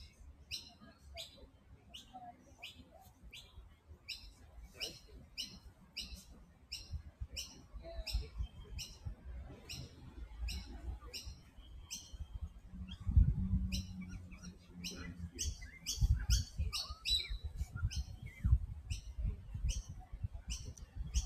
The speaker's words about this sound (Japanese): いやいい天気だなと思って。いい気候ですよ、今日は。鳥の声聞こえますかね